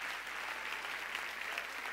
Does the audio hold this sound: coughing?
no